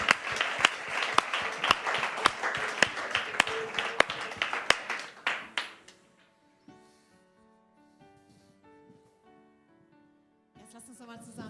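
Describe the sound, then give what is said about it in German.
An audience at a Christian worship gathering breaks into lively applause for the Lord, with sharp individual claps standing out, for about five seconds before it fades and gentle keyboard music takes over. “Lasst uns alle zusammen mal dem Herrn einen riesen Applaus geben, okay?”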